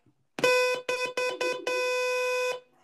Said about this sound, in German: Äh, ne, ich hab eine Tröte gehört, hä? Nein, das ist Zensieren, wenn ich auf Zensieren drücke hier im Podcast. Das ist eine Zusatzdings.